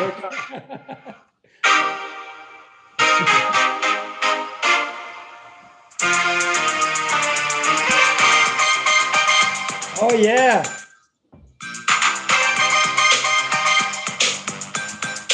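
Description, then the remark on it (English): A loud recorded song plays in bursts, cutting out briefly a few times before the full beat kicks back in, with a short vocal exclamation near the middle. “I gotta play the beginning of this. See if you can hear it.”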